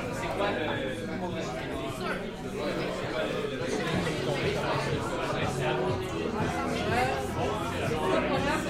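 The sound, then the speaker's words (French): Dense crowd chatter at a packed party where a DJ plays music, many overlapping voices blending into a steady, loud babble with no single speaker standing out, sustained without pause throughout. “On l'entend à peine tellement il y a du monde.”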